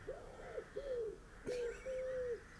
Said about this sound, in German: Ja, diese Taube, ne?